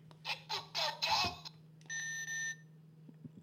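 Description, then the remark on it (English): An alarm-clock-style buzzer, a contestant's new buzzer sound in a quiz game: four quick, harsh buzzing bursts, then a steady electronic beep about half a second long, loud over a faint background hum. “That is the new buzzer sound for Elliot Bartelt.”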